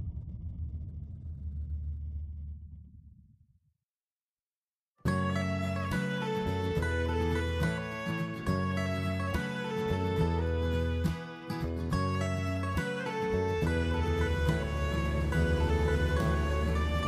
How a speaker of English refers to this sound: The plane's engine roared behind Rick as he walked towards the airport terminal to baggage claim.